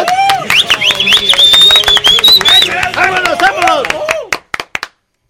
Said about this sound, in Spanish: ¡Aplausos!